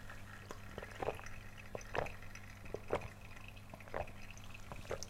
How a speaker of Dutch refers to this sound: En dan pak ik wat koud water. En dan doe ik dat ook erbij. En dan kan ik het in één keer drinken. Maar ik ben een beetje bang, dus ik schenk heel veel koud water in.